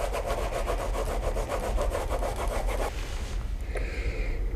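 A marker scribbles across paper in quick, rhythmic back-and-forth strokes, scratchy for about three seconds, then slows into a few softer rubbing sounds, as a drawing of a clown's face is colored red.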